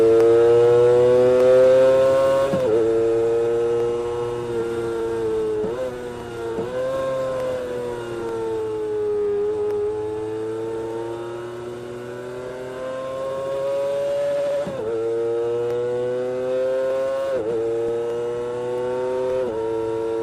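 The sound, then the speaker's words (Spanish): A 250 motorcycle, a model to be sold only in Japan, with its factory exhaust, revs loudly for about twenty seconds, its pitch climbing and dropping repeatedly as it accelerates through gear shifts, with no talking over it. “Pero lo que sí les tengo, escuchen nada más cómo, cómo va a sonar esta motocicleta.”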